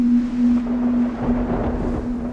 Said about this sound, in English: But when the winds really pick up, you can still hear Beetham Tower's whistle.